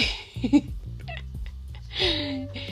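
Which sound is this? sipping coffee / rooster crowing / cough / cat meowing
cat meowing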